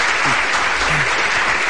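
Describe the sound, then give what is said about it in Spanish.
A burst of applause sound effect: dense, steady clapping from a crowd, loud and continuous for under two seconds, with a faint murmur of voices beneath it. “voy a poner ahí, los aplausos respectivos.”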